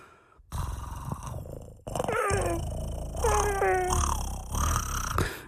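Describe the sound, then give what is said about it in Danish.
Two drawn-out, whining meows from a small cat begging for onions when a bag of onions is taken out, loud and pleading in tone, over a steady low rumble in the background. “Det kan lyde mærkeligt, men du har en lille misjekat, og den vil kun, hver gang du tager en pose løg frem, så står den og slikker sig øh, i øjnene og tænker, og mm, ammen, ammen, ammen, ammen, ja.”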